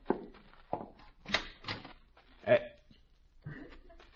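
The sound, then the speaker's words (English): A door is opened, with several short knocks and thumps from the handle and frame spread over a few seconds, and faint voice-like murmurs in between. “You get the scissors, I'll get the door.”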